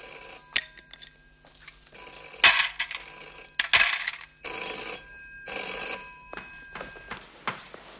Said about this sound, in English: Oh, the telephone's ringing. Coming.